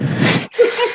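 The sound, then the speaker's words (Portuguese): A single loud sneeze: a breathy burst, a brief catch, then a sharp voiced release, with no talking around it. “Não estava à espera. Saúde. Saúde.”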